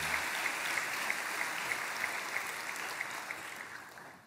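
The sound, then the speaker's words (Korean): A church audience at a worship service applauds steadily to bless fellow church members, a dense wash of many hands clapping at an even level for several seconds, with no talking over it. “혹 빠뜨리면 상처 받으니까 큰 박수로 교양 캠퍼스 교양 성도님들께 축복합니다.”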